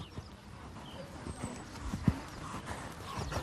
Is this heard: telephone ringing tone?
no